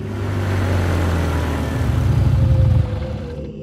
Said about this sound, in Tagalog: Nilabanan ko ang antok ko at nagpatuloy sa pagmamaneho hanggang sa bigla na lang tumirik ang sakyan ko. Biglang tumigil ang makina ng kotse ko.